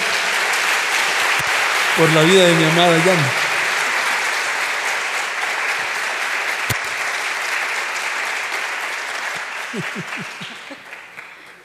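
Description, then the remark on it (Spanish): Loud, steady applause from an audience fills the whole stretch, with a man's voice briefly calling out over it early on, before the clapping gradually thins and fades at the end. “Démele un fuerte aplauso al Señor”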